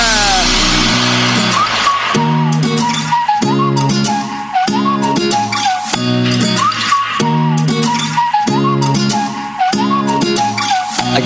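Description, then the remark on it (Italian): A loud, upbeat new 2020 dance music track plays continuously on Radio Wow, with a steady pulsing beat, bright layered synth chords and a high whistling melody line, no voices. “come dicevo siamo su Radio Wow siamo pronti ad ascoltarci un po' di dischetti nuovi in questo 2020 andiamo ragazzi alzate il volume a palla vamos”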